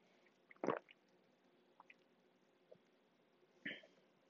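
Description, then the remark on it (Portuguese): Two wet gulping sounds of someone sipping and swallowing water, separated by a few seconds, with faint mouth clicks in between and no talking. “Uh, ultimamente tenho de beber imensa água.”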